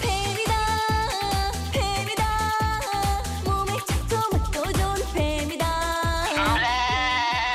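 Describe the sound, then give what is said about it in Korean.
A mobile phone ringing inside a suit jacket plays its ringtone loudly on its own: a bright, looping electronic tune with a steady pulsing beat and wavering, bleat-like melodic notes, running without pause for several seconds. “아버지의 재킷 속에는 아버지 휴대폰이 들어있었고 저는 얼른 전화를 받았습니다.”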